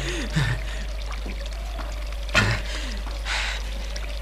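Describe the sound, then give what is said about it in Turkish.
Hands splash and rub in flowing river water, a few brief sloshing bursts rising over a steady background trickle, moderately loud. “Ha, yıkadım, yıkadım.”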